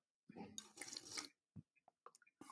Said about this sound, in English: half an hour ago when we started this podcast, I had um, iced coffee. Um, now oh. there is a melted layer of water on top. So let me just drink that off first, and then I'll tell you about it.